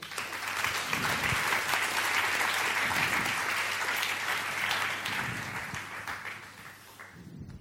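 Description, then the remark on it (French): Steady applause from a seminar audience for speakers about to present the Global Alliance 3.0, a dense wash of many hands clapping that holds for several seconds before thinning out toward the end, with a low hum underneath. “Et ils vont conclure et nous présenter l'Alliance mondiale 3.0 qui, nous l'espérons, permettra d'étendre notre contribution au niveau global je vous les demande de les applaudir.”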